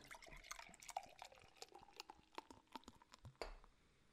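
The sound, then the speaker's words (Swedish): Beer pours from a 500 ml bottle into a glass, with gurgling, splashing liquid, light clinks and fizzy crackles in an uneven stream, no talking over it. “Ska vi hälla upp eh. den förresten?”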